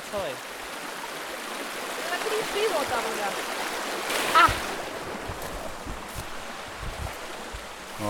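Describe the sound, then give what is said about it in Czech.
A fast mountain brook on the upper Malše river, with golden sands and amber water, rushes steadily, a continuous bright hiss of churning water with small splashy surges and no pauses. “se posouváme ještě výš po proudu, kde se řeka mění v bystrý horský potok se zlatavými písky a jantarovou vodou.”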